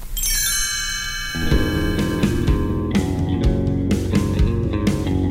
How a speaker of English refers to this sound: You will know it is time to turn the page when you hear the chimes ring like this.